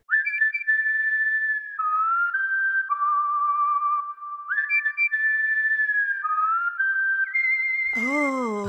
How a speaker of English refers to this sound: I'm sure the whistle will go right here.